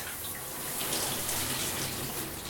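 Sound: running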